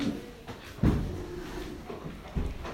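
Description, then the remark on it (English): A door swings shut with a solid thump, followed moments later by a second softer knock, set against a faint background murmur. “Ladies, if you're not coming in, can you close the door?”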